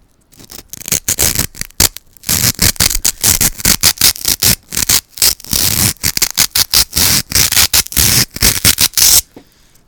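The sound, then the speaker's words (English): Loud, squeaky friction of styrofoam pieces rubbed together in rapid irregular strokes, with brief gaps between bursts and no talking. “Yeah, rub the styrofoam together. Okay, we're gonna rub the styrofoam together.”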